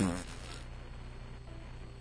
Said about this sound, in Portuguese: Ele falou, peidei.